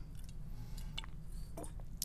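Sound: drinking water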